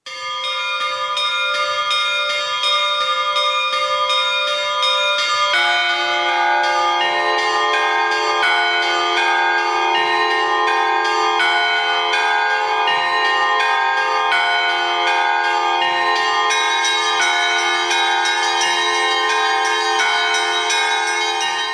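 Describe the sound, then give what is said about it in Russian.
Church bells ring out continuously and loudly, their overlapping tones layering into a rich, sustained peal that shifts and thickens partway through, with no voices present. “Колокола звучать начинают совершенно по-другому, так, как они и звучали и должны звучать.”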